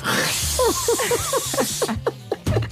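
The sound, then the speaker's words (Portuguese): A loud, steady hissing stream of a woman's urine pouring into a toilet, forceful, stopping abruptly near the end, with some brief tonal squeaks layered over it. “Continuava acordado com o mais alto som de jacto de urina que eu vi na minha vida.”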